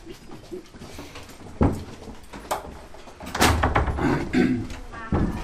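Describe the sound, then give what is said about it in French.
A heavy fire door in a theatre slams shut a few times, each bang sharp with a short rumbling tail, over a background of indistinct voices and room noise. “c'est les portes coupe-feu, donc euh, je fais la guerre d'ailleurs aux techniciens qui euh, ont tendance à les coincer avec des cales”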